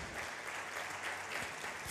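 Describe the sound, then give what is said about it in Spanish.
Steady applause from a crowd, given to the Lord, dense and continuous clapping at an even loudness for the whole stretch, with no voices standing out above it. “Dale un fuerte aplauso al Señor ahí.”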